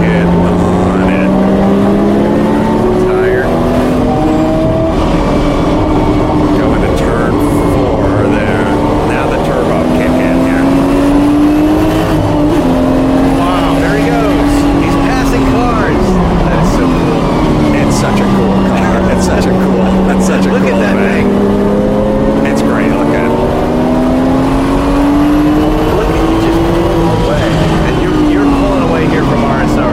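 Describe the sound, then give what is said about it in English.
Turbocharged Porsche race cars, including RSRs and 935s, roar loudly and continuously in a race, their droning pitch climbing and dipping as the cars accelerate, shift and pass. “Oh yeah, here's the turbo noise.”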